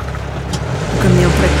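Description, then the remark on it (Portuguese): A truck engine rumbles steadily, then revs higher about halfway through, its pitch climbing as the truck pulls forward and the driver uses the clutch to shift into second gear. The low drone stays fairly loud throughout. “O caminhão vai para a frente. Segunda. Não, embreagem segunda.”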